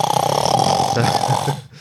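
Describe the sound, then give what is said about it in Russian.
A person loudly imitates a grandfather's furious snoring at three in the night, with one long, rough, rattling drone held for about a second and a half before it cuts off. “но в три часа ночи ты просыпаешься в холодном поту от того, что твой дедушка неистово храпит, просто так неистово, что еще неизвестно, что страшнее, красная рука или храп твоего дедушки в три часа ночи.”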